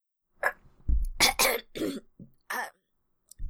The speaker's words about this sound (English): Choking noises.